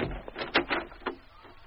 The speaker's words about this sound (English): And let's open the door for a start. No, I'll do that, ….